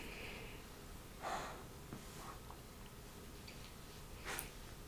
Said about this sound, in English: He's breathing very hard. Um, yeah, definitely unsettling.